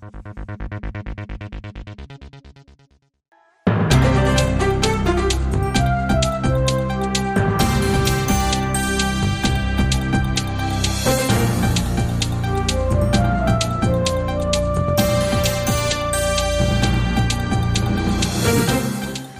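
A K-pop girl group song plays loud: a short synth intro, a brief dropout, then a full upbeat dance-pop arrangement with steady driving beats continuing to the end.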